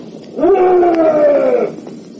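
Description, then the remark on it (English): A single deep, drawn-out bellow from a huge, shaggy buffalo, harmonic and sustained for over a second before trailing off, loud with no voices. “From the horrible beast there came a roar.”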